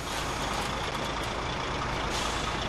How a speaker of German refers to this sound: rangiert seinen Lkw-Zug unter die beiden Transportcontainer